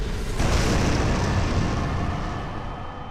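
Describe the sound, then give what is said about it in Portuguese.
A loud explosion sound effect bursts in with a sharp onset, then a dense, rumbling roar that slowly fades over about three seconds, with no voices. “E depois ela fica mais clara e ela vai criando um redemoinho que engolfa todo o turfão e explode.”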